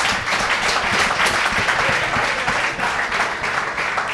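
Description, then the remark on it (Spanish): A small audience bursts into steady, sustained applause for what a speaker has just said, dense overlapping claps holding an even loudness for several seconds without anyone speaking. “Un aplauso para eso que acaba de decir, por favor.”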